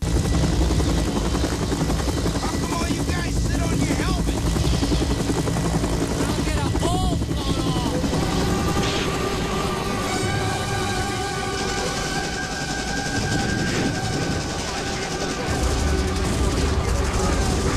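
Helicopter rotor noise drones loudly throughout, mixed with sustained musical tones and bursts of heavy explosive rumbling, forming a dense, continuous wall of sound with no clear pauses.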